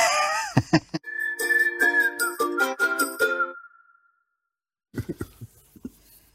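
A short musical jingle plays: a sustained whistle-like tone gliding slightly downward over rhythmic bright chiming hits, then fading out, with voices talking briefly before and after.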